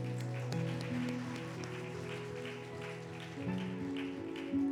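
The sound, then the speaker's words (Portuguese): An audience applauds the Lord steadily, a dense, even patter of many hands clapping over sustained keyboard chords that shift pitch midway, with no one speaking. “Vamos aplaudir o Senhor enquanto isso.”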